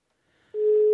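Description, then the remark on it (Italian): A steady electronic telephone ringing tone begins about halfway through and holds loud and even to the end. It is the tone of an outgoing call from the sports radio show All You Can Sport as it connects to winter sports champion Cristian Ghedina. No voices are present. “Squilla qui là forse anche un po' alto, cerchiamo di capire se si sente.”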